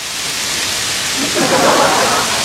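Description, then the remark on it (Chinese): A storm at sea, met by a large ship on its voyage home: a dense, steady roar of wind and rain that swells louder around the middle before settling back slightly, continuous with no pauses. “后来啊，在回国的海上，一不小心遇到了暴风雨啊！”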